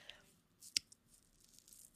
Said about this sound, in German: das Schluck Wasser kommt jetzt.